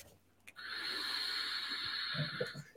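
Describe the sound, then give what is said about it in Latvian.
A steady, airy whistle of air drawn through a vape tank's top airflow, starting abruptly and holding loud for about two seconds, with faint low thumps near the end. “Šeit velkam iekšā gaisa, un tad, tāpēc tā skaņa rodās tik liela.”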